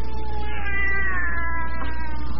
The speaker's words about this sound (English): And now your cat cries when you start having nightmares. Well, I'll show you what makes Kitty cry and what makes you dream.